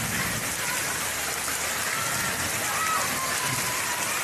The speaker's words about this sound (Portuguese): vem curtir porque a natureza está nos proporcionando muita chuva